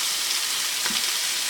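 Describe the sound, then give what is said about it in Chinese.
Steady, bright sizzling of a spoonful of sugar heating at the side of a hot, oily wok, a continuous crackly hiss with faint pops and no talking. “我现在把一匙糖呢放在锅子的旁边，然后呢让它稍微热了之后，”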